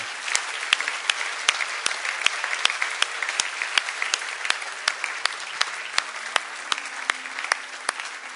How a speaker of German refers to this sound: Lasst uns mal klatschen für die, die das gebetet haben.